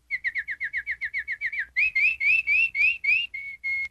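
A bird sings clearly on its own, starting with a rapid run of short, evenly spaced chirps, then shifting into slower, longer rising whistled notes that end in a few steady tones.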